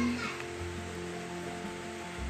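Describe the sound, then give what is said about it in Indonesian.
Steady morning rain on Friday 30 April 2021 falls in a continuous, even hiss that fills the whole short stretch, with a faint low hum running underneath and no voices. “Pagi ini diawali dengan hujan”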